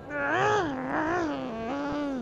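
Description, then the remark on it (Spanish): A person imitates the crying of a newborn baby camel: one continuous, wavering, nasal wail that rises and falls in pitch for about two seconds, loud, with no talking. “Llorando.”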